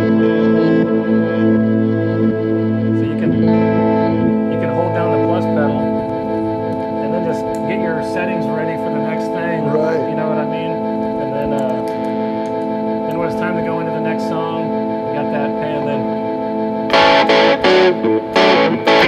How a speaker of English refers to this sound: I love using the um, the plus pedal from uh, Game Changer Audio. Oh, right. With the uh, the Danelectro.